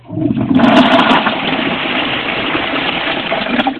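A toilet flushes, a loud rushing gush of water that surges at the start and then settles into a steady swirling drain for a few seconds.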